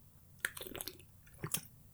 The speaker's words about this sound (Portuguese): Desculpem, engasguei-me, tive que beber água.